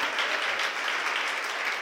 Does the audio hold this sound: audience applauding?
yes